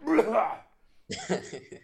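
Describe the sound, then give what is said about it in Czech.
A man's voice mimics a man seated opposite the speaker who kept clearing his throat: a short voiced, gravelly grunt, a brief pause, then a harsher, raspy burst broken into a few rough pulses, fairly loud. “protože proti mě si sednul chlap a každou chvíli si odkašlal a on seděl, že ho zavřený oči a z ničeho nic.”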